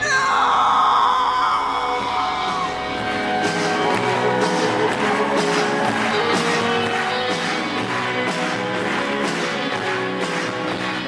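A live rock song cover: loud, strained singing soars over a full band with steady drum hits, the sound dense and unbroken throughout, with a crowd's roar mixed in.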